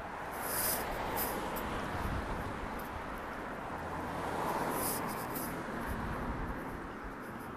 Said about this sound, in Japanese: 今録音しているのはまあ、野外ですね野外というか野外というとかっこいいですけど真、まあ、冬の野外とかそんな感じになりますけど、えー、まあ、路上ですね